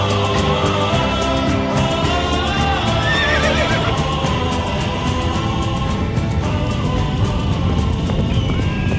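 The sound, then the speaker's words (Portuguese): A herd of horses gallops past with a dense rumble of hooves while several neigh and whinny over the top, loud and continuous throughout, with no voices. “Veja uma manada.”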